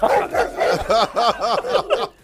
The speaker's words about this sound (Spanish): el perro si la entrena, si la entrena, también puede ladrar para.